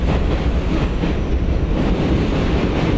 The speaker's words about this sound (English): Are we riding on the trains? Are we going for a ride?